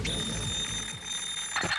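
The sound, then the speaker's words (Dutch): A shrill electronic alarm clock rings continuously, its steady high-pitched tone sounding loud over a low background rumble. “Wekker uitslaan, opstaan, koffie zetten”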